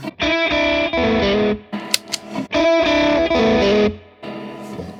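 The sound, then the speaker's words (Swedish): Electric guitar played through a Silver Bean overdrive pedal, loud gritty chords ringing out in several sustained bursts separated by short pauses, with a brief higher note flick in the middle. “Det var Silver Bean där.”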